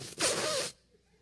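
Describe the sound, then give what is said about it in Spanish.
A voice imitates slurping the last drops of a Coca-Cola through a straw: one short, airy, gurgling rasp lasting about half a second, fairly loud, then quiet. “Cristo nunca se tomó la Coca-Cola completa. Judas siempre hacía el pequeño sonido”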